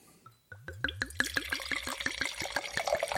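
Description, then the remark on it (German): Red wine glugs steadily from a bottle into a glass, a quick run of rhythmic gurgles that start abruptly and continue evenly, clear with no talking. “Soll ich schon mal was einschenken? Genau, schenk doch mal Rot ein.”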